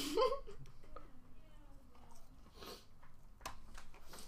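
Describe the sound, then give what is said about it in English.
Someone chews food with wet, crunchy bites and soft mouth noises over a few seconds, starting with a brief muffled vocal sound, with occasional sharper crunches later on. “I can't have food in my mouth, that's an issue.”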